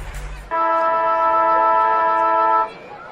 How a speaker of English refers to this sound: Siren sounds to start the third quarter of footy here at Hands Oval.